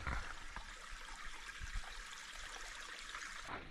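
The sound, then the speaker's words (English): Water trickles and babbles steadily over stones in a nearby stream along a mountain hiking trail, a continuous gentle splashing with no voices, holding an even level throughout. “And for most of the way, I've been able to listen to the water trickle in this nearby stream.”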